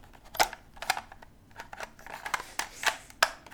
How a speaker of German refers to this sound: das Geräusch, wenn man Cartridges rein und rausnimmt.